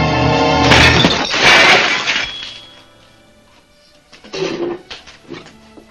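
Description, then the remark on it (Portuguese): In a film scene, plates are thrown off a dinner table: dishes smash loudly in a long, jangling crash of breaking crockery and glass, then quieter clinks and a few smaller shattering bursts follow after a brief lull. “aquela da, da, da, da tirar os pratos da mesa, né? é, aquele quebra tudo.”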